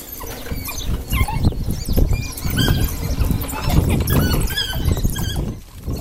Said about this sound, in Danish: Det, det I kan høre lige nu, det er Omega-hunden, der får lidt tæsk. Øh, det lyder så voldsomt. Øh, det lyder altid voldsomt. Så bliver kødet kørt ud. I kan høre, der kommer rigtig meget vokal på hundene nu.